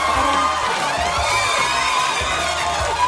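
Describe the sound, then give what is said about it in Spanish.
Loud, steady applause and cheering from a studio audience on the show Hacemos lo que podemos, welcoming guest Ronnie Arias, with dense clapping and scattered whoops and shouts layered throughout for a few seconds. “Fuerte el aplauso para... para, para...”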